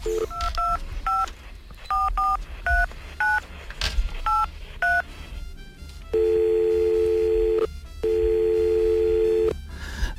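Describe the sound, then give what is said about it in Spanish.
A rapid series of about ten short telephone keypad beeps in an uneven rhythm as someone dials a complaints number, followed by two long steady ringing tones with a pause between, clear with no talking. “Ahora, ahora mismo voy a llamar al número de reclamaciones.”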